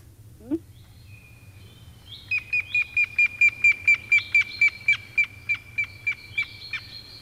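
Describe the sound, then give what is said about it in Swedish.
A grey-headed woodpecker gives a clear, whistled call: about fifteen evenly spaced notes in a steady series, fairly loud, over a low background hum. “Vi ska ta och lyssna på gråspetten här ett jo, litet tack.”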